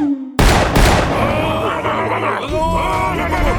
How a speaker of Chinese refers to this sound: 枪声响起了，突然出现的巨大声音和火光可把野人们吓坏了，他们停下了脚步，像呆头鹅一样一动都不敢动。